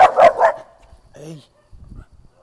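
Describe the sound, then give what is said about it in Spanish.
A small female dog out on a walk lets out a quick burst of three sharp, high-pitched yaps, followed by a brief whiny vocal sound and some low rustling. “caminando con, ah, con whisky, la perrita”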